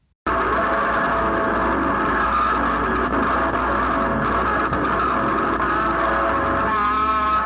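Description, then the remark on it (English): An amplified electric guitar, a Fender Stratocaster, dragged behind a truck in a work by Christian Marclay, its amplifier at very high volume: a loud, continuous roar of grinding, buzzing noise with droning tones, steady for several seconds over a low vehicle rumble, with no voices. “Marclay reactivated this racist murder in a certain sense by replacing James Byrd with an electric guitar, a type of Fender Stratocaster, which was dragged behind a truck with an amplifier transmitting the sounds of the guitar at very high volume.”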